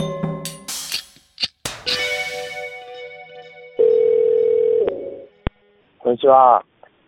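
A telephone dial tone hums steadily and loudly for about a second, preceded by fainter electronic tones and beeps, with a brief chirping burst near the end, as a call is placed from Matprat.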